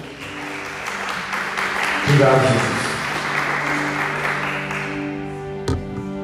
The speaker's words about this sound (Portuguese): Aleluia, aplauda Ele.